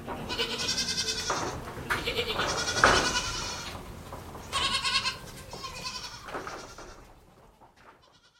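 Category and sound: animal, goats bleating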